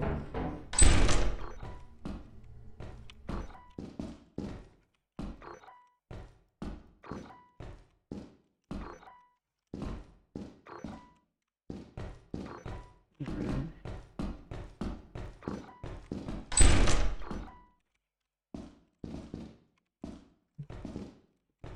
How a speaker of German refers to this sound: Warum geht die Tür plötzlich zu?